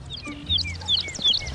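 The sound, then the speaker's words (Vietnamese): Loud, shrill bird chirps repeat in quick bursts about three times, high and piercing over a low rumbling background hum. “Bữa nay chim có gì vui mà hót rít đau hết cái đầu hà”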